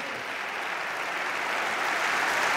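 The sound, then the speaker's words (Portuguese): A crowd breaks into sustained applause that interrupts a speech by the PS party leader, a dense crackle of many hands clapping at once that holds steady and swells slightly louder toward the end, with no voices coming through. “Uh, queria prolongar aqui o discurso, esta frase, mas as palmas é interromperem o líder do PS.”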